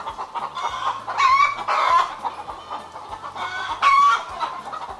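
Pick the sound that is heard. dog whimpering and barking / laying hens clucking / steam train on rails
laying hens clucking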